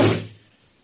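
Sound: door being closed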